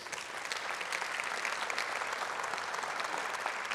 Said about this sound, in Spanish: Si usted aplaudió, más vale que lo esté viviendo.